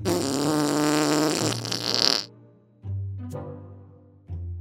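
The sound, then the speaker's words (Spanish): Loud, buzzy farting noises made while defecating, three of them: a long, drawn-out one with a rising squeaky end, then a shorter one and a brief final burst, with no talking. “¿Qué son esos ruidos de pedos?”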